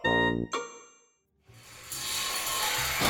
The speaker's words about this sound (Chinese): 天哪，电梯卡住了！妈妈，我们赶紧扒门出去吧。 宝贝，快停下！电梯发生故障，千万不能扒门，这样很危险。